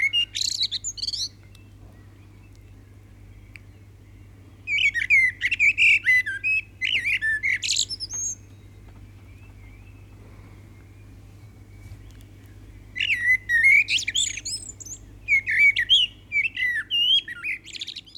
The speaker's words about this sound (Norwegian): Ja, hva var dette her, da? Det er jo svarttrost. Ja, helt riktig. Hvordan hører du det? Det er eh, det, det er jo en, en, eh, komponist. Altså, Tyske forskere har funnet ut at svarttrosten er faktisk en ordentlig komponist.